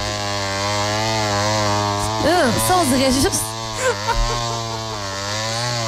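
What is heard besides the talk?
chainsaw running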